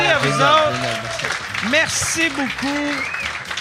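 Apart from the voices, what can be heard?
audience applause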